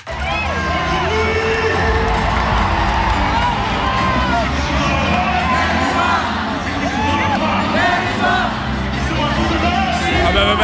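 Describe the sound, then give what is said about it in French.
A big concert crowd at the second edition of the Night, a nostalgia concert of 80s, 90s and 2000s music with over 30 artists, cheers and screams without a break, loud and dense, with high whoops and children's shrieks poking out of a steady roar of voices. “Et l'ambiance était au rendez-vous. Écoutez.”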